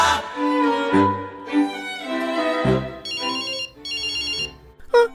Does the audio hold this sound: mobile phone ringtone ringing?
yes